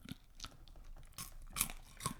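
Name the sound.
chewing crunchy popcorn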